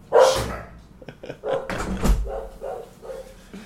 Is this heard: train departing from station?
no